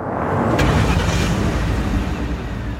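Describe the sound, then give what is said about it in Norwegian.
Police cars roll into a square, heard as a steady, loud low engine rumble with tire noise that holds for about three seconds. A brief sharp click sounds near the start, and no one speaks. “Plutselig ruller politibiler inn på plassen.”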